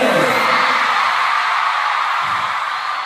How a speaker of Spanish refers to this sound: Cada, palabra en español este, de … eh, era gritada por las chicas, no lo dejaban hablar, pobre.